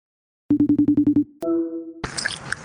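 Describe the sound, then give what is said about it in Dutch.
A phone line gives a quick run of about eight clipped electronic beeps, then one steady held tone, before the line clicks open onto a noisy, hissing connection. “En dat hij nu wordt opgenomen.”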